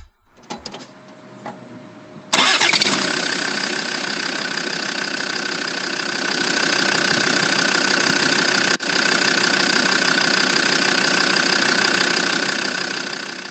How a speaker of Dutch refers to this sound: Ja, ik zeg, het, is, een, eh, eh, het is het geluid van een startende auto.